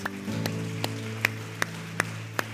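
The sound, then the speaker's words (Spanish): Steady rhythmic hand claps, about seven sharp beats at an even tempo, ring out over a sustained low musical drone as a church audience in Ciudad Miguel Alemán, Tamaulipas, claps in time together as applause to God. “Dele fuerte el aplauso a Dios.”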